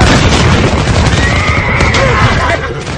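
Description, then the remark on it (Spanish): A thunderous roar of massed musket fire from troops' lines opening fire on the enemy in battle rumbles continuously and loudly, while a rearing horse's high whinny rises faintly through the din before the noise eases slightly near the end. “aquel instante llegó a sus oídos un fuego atronador que resonó desde nuestras líneas. Los caballos se encabritaron, y cuando nos volvimos, descubrimos que los nuestros habían abierto fuego sobre los herejes,”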